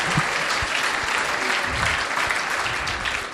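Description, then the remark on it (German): Steady audience applause, a dense wash of many hands clapping at an even loudness for a few seconds without pause or voices on top. “Eigentlich mal Applaus.”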